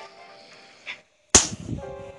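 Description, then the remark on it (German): A single ancient arrow is shot in a video game with a sharp, loud whooshing snap after a brief hush, followed by a rumbling tail over a soft, steady hum of game background sound. “Leute, antiker Pfeil.”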